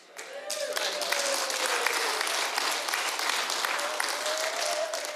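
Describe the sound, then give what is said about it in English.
About a fifth of a church audience breaks into steady applause during a sermon, starting abruptly and continuing throughout, a dense wash of clapping hands with what sounds like a faint voice calling out over it. “Thank you for the 20% that clapped on that.”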